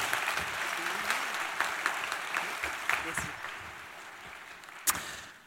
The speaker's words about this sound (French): Voilà, vous pouvez également l'applaudir, c'est pas interdit.